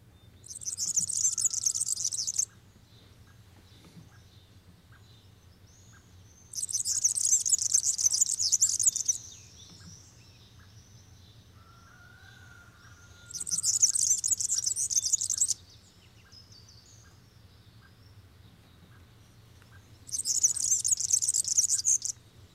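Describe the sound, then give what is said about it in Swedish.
A European serin sings four bursts of high, buzzing, jingling trill, each lasting a couple of seconds, separated by pauses, clear over a low steady background hum. “Gulhämplingens lete han jag leta upp här.”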